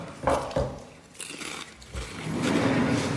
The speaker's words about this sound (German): Stört das Knuspern? Knuspern, ich würde das Knuspern, ja. Aber ich Tüte ist schlimmer.